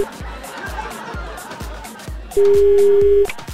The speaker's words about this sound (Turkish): Arıyorum, hayatım. Arıyorum çalıyor.